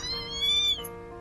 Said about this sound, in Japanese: 学校帰り私と由美子ちゃんは公園の茂みでみゃーみゃー鳴いている子猫を見つけたのだ